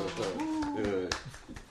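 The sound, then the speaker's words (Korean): A few scattered hand claps, sharp and irregular, welcoming guests to a broadcast, sound beneath a voice that dominates throughout; the clapping is sparse and moderately loud rather than a full burst of applause. “힘찬 박수를 부탁드리겠습니다.”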